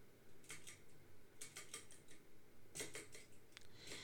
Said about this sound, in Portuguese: Esse barulho. Eu não sei se eu mencionei isso aqui. Pode ser que eu já tenha mencionado. E eu só esqueci, mas eu comprei um sapinho, meu. é um sapo de mola, tá? Ele tem dois pés e uma parte de baixo. E aí ele tem mola.